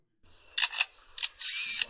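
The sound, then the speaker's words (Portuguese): A lyrebird mimics a camera shutter: a few crisp clicks, followed by a longer buzzing burst like a rapid motor-drive sequence, loud and clear with no talking. “Isso aqui, de novo, é um pássaro, mano. O da câmera eu acho que já tinha visto.”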